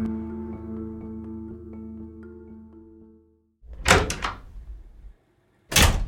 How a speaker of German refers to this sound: Peter reißt die Tür ihres Hotelzimmers im 35. Stock auf.